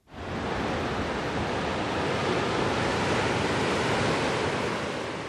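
Sea waves break steadily against the coast by the small island of San Juan de Castellugace in Spain, in a continuous, loud wash of surf with a faint rush of wind, and no voices.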